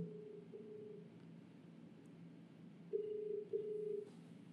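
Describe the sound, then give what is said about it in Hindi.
An outgoing phone call on speaker mode, held to a microphone, ringing: steady mid-pitched ringback tones, a faint one early, then two louder pulses close together near the end, over a low hum with no talking. “ये शिकार speaker mode पे कर लेना आफ्टर कॉलिंग एंड उसको पास कर दियो उसके माइक के स्पीकर तक आवाज तेज करो”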